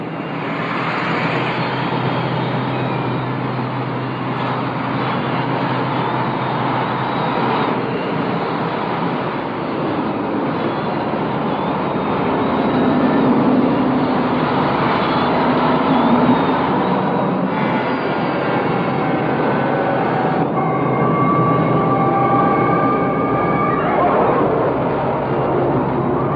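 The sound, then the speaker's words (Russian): A dense, steady, rhythmic clatter of rolling wheels fills the scene, then gradually gives way to electronic sounds sampled and edited by a composer, with sustained synthetic tones rising out of the noise near the end. No one speaks. “земные шумы вроде мерного стука колес незаметно сменяются электронными, сэмплированными и отредактированными композитором.”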